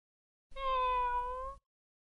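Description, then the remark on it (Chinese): A single drawn-out cat meow lasting about a second, steady and fairly loud with a slightly falling pitch, standing alone in otherwise silent surroundings; the cat is called Bai Xiaopang (白小胖). “你还真的是个小馋猫呢。”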